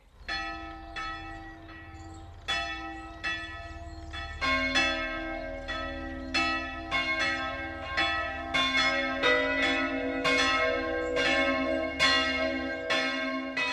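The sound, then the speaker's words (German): The three bells of the Catholic St. Jakobus church on the church hill in Vieret, Upper Franconia, Germany, ring together for the noon ringing over the Main valley, overlapping peals striking in a steady, layered rhythm with long resonant tones, loud, no voices. “Weit ins Maintal ertönen vom Kirchhügel in Firet die drei Glocken der katholischen St. Jakobuskirche.”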